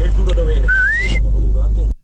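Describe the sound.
A short human whistle, a single rising note lasting about half a second, heard clearly over a low rumbling background with faint voices murmuring.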